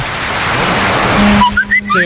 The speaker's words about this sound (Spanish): Se, nota, ¿verdad? Sí, Está lloviendo, ay, qué sabroso.